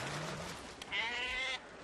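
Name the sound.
sheep bleating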